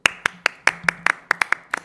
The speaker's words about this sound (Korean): 선물로 저희 남은 게스트들의 박수 드리도록 하겠습니다. 박수.